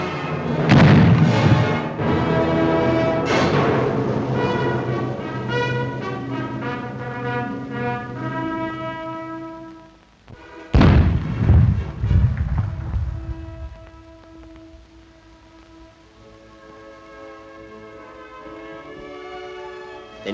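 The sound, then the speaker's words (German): Deep blasts from an old wooden cannon boom out over sustained brass band music: a couple of shots near the start and one loud blast midway, its rumble fading as the music carries on. “Volle Deckung wird genommen, rasch die alte Holzkanone gerichtet, dann Schuss und Pulverdampf.”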